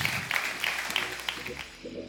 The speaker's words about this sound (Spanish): un fuerte aplauso a su Dios, casa de Jesús.